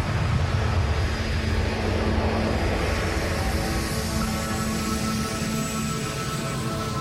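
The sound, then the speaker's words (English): Jet engines of Air Force One roar loudly and steadily as the aircraft climbs steeply, almost straight up, after takeoff, a dense rushing sound with a high turbine whine rising in pitch. No voices. “Once we got on that plane, that cranked Air Force One up, took up straight up,”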